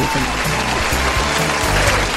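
Sustained applause from a crowd, a dense steady wash of clapping that stays loud and even throughout, with no pauses or breaks.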